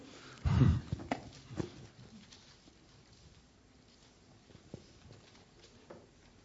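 Bible pages being turned by an audience looking up 2 Chronicles: one louder rustling flip near the start, followed by several soft, scattered page rustles and small taps.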